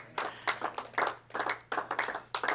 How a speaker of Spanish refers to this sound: Cuando usted aplaude para Dios, Dios recibe eso. Porque todo lo que hacemos aquí es para alabar a Dios.